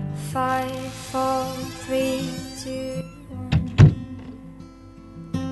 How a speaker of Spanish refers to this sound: Voy a cerrar la puerta, ta? O voy a abrirla, no sé.